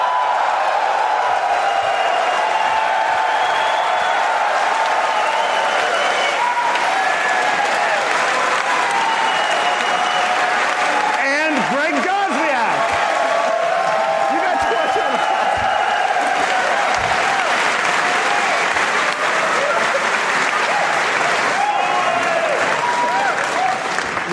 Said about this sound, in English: That was more applause than the Mac Pro guy.